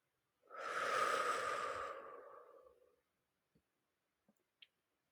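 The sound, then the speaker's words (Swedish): A long, deep breath out, fairly loud, whooshing for about two and a half seconds before fading, followed by a few faint, soft clicks in the quiet. “Och vi andas ut.”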